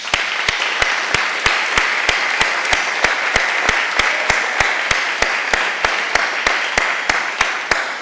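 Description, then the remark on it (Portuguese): An audience applauds for Jesus steadily for about eight seconds, a dense, even wash of many hands clapping, with a faint regular beat running through it and no one speaking. “Dá um aplauso a Jesus.”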